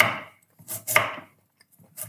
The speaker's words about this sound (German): Ja, ich schneide das jetzt einfach auf möglichst feine Würfel. Du kannst das Ganze natürlich auch mit einer Küchenmaschine oder mit einer Reibe machen.